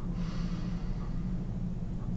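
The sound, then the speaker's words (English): A single long, deep breath drawn in during a breathing exercise to clear the mind, a steady airy rush lasting a couple of seconds with no talking. “Right, you can close your eyes take a deep breath in”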